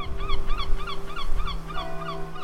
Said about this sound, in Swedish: Nere vid hamnen seglar måsarna över fartygen som väntar på att lossas eller lastas.